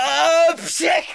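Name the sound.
sneeze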